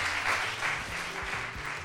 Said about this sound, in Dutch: En eh, applaus voor Marja Pruis.